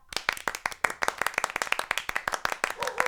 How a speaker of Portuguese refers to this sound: Ah, gente, uma salva de palmas pra Sara.